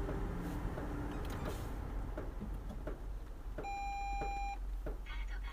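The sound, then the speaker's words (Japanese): A car's electronic warning beep sounds once, a steady tone lasting about a second, as the car is parked in a home parking space, over a constant low rumble of engine and heavy downpour rain. “はい、え今駐車場に止めることができました”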